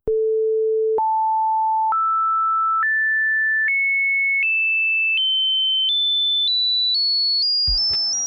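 A steady electronic tone steps upward through a harmonic series of whole-number multiples of the fundamental, each pure pitch a little higher and briefer than the last, ending abruptly with a short burst of noise.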